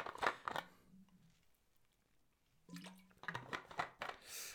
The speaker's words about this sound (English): sorry, eh, I, I do need some water. I'm just going to take a sip of water.